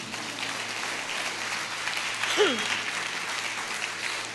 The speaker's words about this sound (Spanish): Dale un aplauso de gloria.